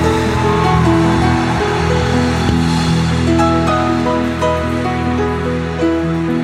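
A loud, steady wash of crowd applause runs throughout, dense and crackling, with sustained musical chords playing underneath.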